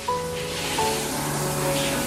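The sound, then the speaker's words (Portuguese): Water sprays under pressure in a steady hiss that runs continuously for about two seconds, with a faint whining hum from a pump beneath the spray. “limpar mesmo Entretanto, com pressão. mais água. Sim, sim, sim. Pois, ligaste mais água.”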